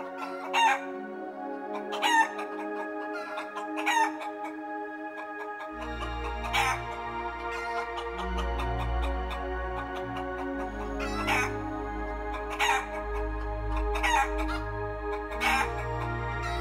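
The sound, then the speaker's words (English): Clucking chickens and a rooster's crow repeat in short bursts every second or two over a steady musical backing, with deep bass joining about a third of the way through. No one speaks. “Winner, winner, chicken dinner.”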